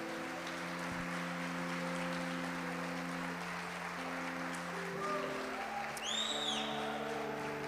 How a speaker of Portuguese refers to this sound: Aplaude o Senhor por essa realidade.